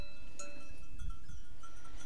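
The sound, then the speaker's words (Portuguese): A small herd of one cow with seven sheep, or five sheep and two goats, moving along as they're herded outdoors, with bells on the animals ringing steadily over a rumbling, breezy background and no one speaking. “Levo uma vaca e sete ovelhas.”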